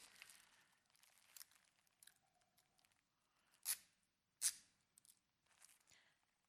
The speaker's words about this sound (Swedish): Där står en tejprulle, ta den är du snäll. Nu tejpar vi här så det blir ordentligt.